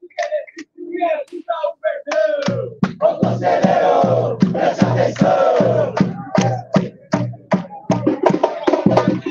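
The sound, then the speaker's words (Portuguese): A crowd of Palmeiras football fans chants together at a protest in a loud, steady rhythm, driven by sharp regular claps or drum hits, after a single voice briefly leads at the start. “Ó, outro, outro canto aqui, ó.”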